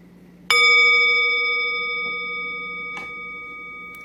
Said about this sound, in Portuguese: E eu vou convidar o sino a soar daqui a pouco, mas não se mexe ainda.